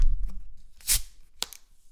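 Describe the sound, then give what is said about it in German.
A bottle is opened: a brief, bright hiss of escaping gas, followed a moment later by a shorter, sharp burst of the same hiss. No one speaks. “Mach die Flasche auf, ich sehe es.”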